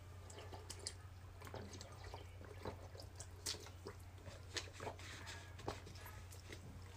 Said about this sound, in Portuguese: Deixa eu tomar uma água aqui.